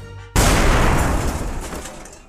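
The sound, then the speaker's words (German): An explosion sound effect bursts in abruptly after a brief tonal lead-in, its broad rumbling roar sustaining and slowly decaying over a couple of seconds, with no voices present. “Und das waren Stonys Explosionen.”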